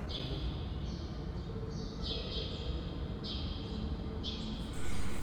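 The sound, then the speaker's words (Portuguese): Birds chirp in trees in repeated high, bright bursts over a steady wash of background noise, the calls coming every second or so. “Uh, o rustalhar dos ramos e das folhas também poderá começar a entrar mais nas cidades e os pássaros também poderão começar a pousar nas árvores.”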